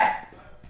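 A single sharp sneeze bursts out loudly at the start, then fades quickly into a quiet, faintly noisy tail with no talking.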